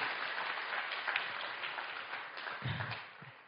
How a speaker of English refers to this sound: Come on, let's give God a good clap offering.